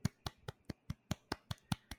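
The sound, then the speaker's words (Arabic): About ten light, soft hand claps in a quick, steady rhythm, with no talking, mimicking the polite, restrained applause of a golf audience. “كذا يصفقون باخف صفقه ممكن”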